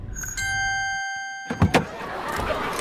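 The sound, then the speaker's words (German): A limousine's steady electronic chime hums for about a second, then a few rustling thumps as someone steps out of the limousine and the door moves, with quiet cabin ambience underneath. “Du hörst es da, da wird er äh, fleissig gefüttert, wo du aus der Limousine aussteigst.”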